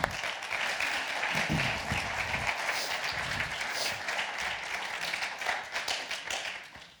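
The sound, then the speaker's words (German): Steady applause from an audience, a dense wash of many hands clapping at even loudness for several seconds, with a few murmuring voices faintly underneath, welcoming a man coming forward to share his life story. “erzählt uns ein bisschen aus seinem Leben, wie er das erlebt hat und wir geben ihm jetzt schon einen Applaus. Applaus”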